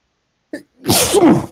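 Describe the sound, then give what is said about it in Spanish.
A single loud sneeze: a short sharp intake of breath, a brief pause, then a forceful, breathy burst lasting about half a second before it cuts off. “Que buscan estornudos en vivo para masturbarse, güey.”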